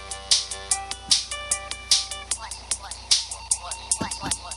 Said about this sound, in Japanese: そうカタカタカタって音が出やすいんですよゲーミング PC って言ってゲームするためのパソコンのねあれなんでキーボードなんで音がカタカタカタカタ言うんですよ